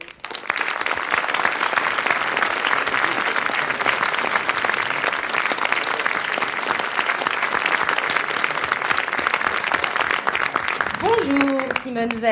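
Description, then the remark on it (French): A studio audience in studio 105 at Radio France claps steadily and loudly for about twelve seconds to welcome political guest Simone Veil, a dense wash of many hands with scattered cheers, and a voice begins speaking as the applause fades at the end. “Est-ce que vous avez remarqué le public, asseyez-vous parmi nous, le public applaudit exactement comme un sondage.”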